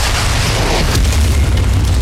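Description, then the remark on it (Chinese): A heavy ground-shaking impact as the ground takes a violent blow and instantly blasts out a large crater: a deep loud boom that rolls on as a continuous low rumble with gritty, crackling debris noise over two seconds, with no voices. “地面受到强烈的冲击，瞬间炸出一个大坑。”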